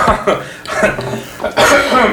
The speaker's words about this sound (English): excuse me, I am not coughing so much anymore. Thank God.